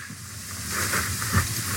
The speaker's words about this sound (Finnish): Ahaa, kuohuu. Ja todellakin tämä pieni vahto esisatsi, joka nousi tästä niin kuin oluttölkistä, se on vähän tämmöistä rusehtavaa.